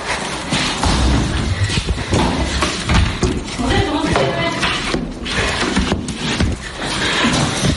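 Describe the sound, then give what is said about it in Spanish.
A door being banged during a scuffle as activists enter a project manager's office in a show flat at a construction site in southern Tenerife: loud thuds and knocks land repeatedly amid a continuous jumble of agitated voices and movement noise. “Y ocurre esto que van a oír. la puerta.”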